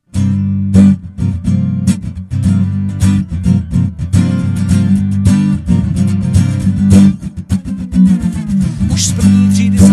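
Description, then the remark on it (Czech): A recorded song plays loudly and continuously, with a full, steady instrumental backing: sustained low bass tones and sharp rhythmic percussive hits driving a regular beat throughout. “Písničku uslyšíte celou právě teď.”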